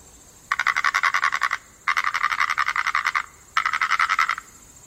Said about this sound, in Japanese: なんだと思うカエルだろ。違う。えこんな季節に都合よくカエルが鳴くはずないでしょでも。これは、二枚の貝殻をこすり合わせている音。